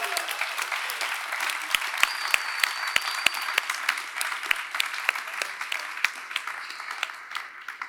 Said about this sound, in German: Ein großes Dankeschön für eure schönen Fragen und schön sind ihr da. Applaus für euch. Applaus für euch.